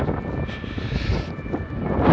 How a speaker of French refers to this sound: Alors il y a pas mal de vent dehors. c'est pas trop euh, euh, pour le son.